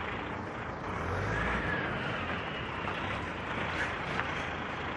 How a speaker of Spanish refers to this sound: A ver, espera, son los camiones. ¿eh? Se tiene que poner a dar la vuelta justamente por aquí.